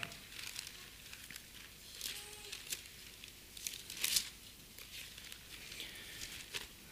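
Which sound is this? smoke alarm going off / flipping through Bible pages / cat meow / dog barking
flipping through Bible pages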